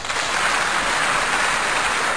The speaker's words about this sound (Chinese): 这位朋友，虽然你这种行为我嗤之以鼻，但是对于你敢于承认自己啊，我给予你掌声和呐喊声。